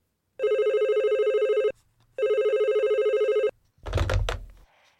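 Two long tones of a telephone ringback on an outgoing call, each about 1.3 seconds with a short gap, loud, followed by a brief clattering noise as if the line is picked up.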